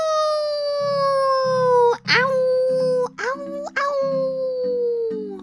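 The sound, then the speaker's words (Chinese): Voices imitate a wolf pack howling as it runs: long, sustained, slowly falling wails that break off briefly and rise again, layered over a steady low rhythmic pulsing underneath. “狼群一边奔跑一边发出嚎叫。”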